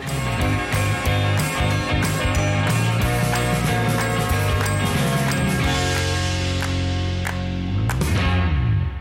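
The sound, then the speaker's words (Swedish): A short, loud musical jingle plays for about nine seconds, layered tones over a steady beat of crisp, clicking percussive hits, with no voices over it. “Jingel! Jingel!”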